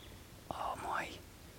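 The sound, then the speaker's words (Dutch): A single soft, rising whistled call, a European nightjar's flight call given as the bird flies calmly past, swoops upward over about half a second against a faint, quiet background. No one speaks. “Oh ja, daar gaat hij. Hoor hem? Wiep.”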